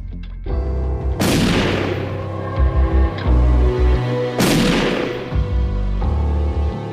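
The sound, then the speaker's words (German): Two loud gunshots at night, about three seconds apart, each cracking sharply and then rolling off in a long, echoing tail over a low, steady rumbling drone. “In der Nacht hört Jürgen Mertens zwei Schüsse.”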